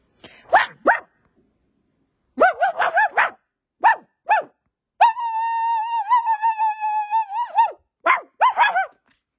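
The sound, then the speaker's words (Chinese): A person's voice imitates an ordinary dog barking, with short yelping barks in quick clusters and one long, steady wavering howl in the middle, followed by a few more sharp barks. “好，我就开始狗叫了，我就很简单的狗，很简单的狗，什么样的狗？”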